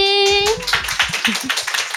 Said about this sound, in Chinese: 我们邀请了九位来宾来和我们聊聊他们最近的工作与生活。我们先掌声欢迎这些来宾。